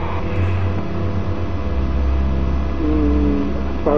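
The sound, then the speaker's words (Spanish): A car engine hums steadily before the car is switched off, a low droning rumble with shifting tones and a slight rise in pitch near the end, with no voices present. “apagué el coche.”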